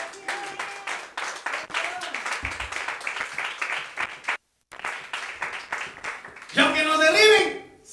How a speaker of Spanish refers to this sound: Es la ofrenda de palmas del Señor.